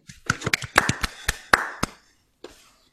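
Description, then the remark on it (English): A short burst of scattered hand clapping from a few people, congratulating footballer Ali McCann on an award, sharp irregular claps lasting under two seconds, followed by silence and one last lone clap. “Clap again, guys.”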